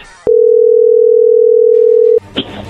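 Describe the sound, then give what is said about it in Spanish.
A steady, loud telephone dial tone of an outgoing call holds for about two seconds, then cuts off into a brief burst of clatter and background noise. “Pero bueno, vamos a llamarle en este momento.”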